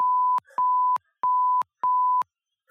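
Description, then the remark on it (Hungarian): Four loud, steady censor bleep tones at a single pitch, each lasting under half a second with short gaps of faint talk fragments between them, ending with a brief burst of noise. “Ez sípolt ki.”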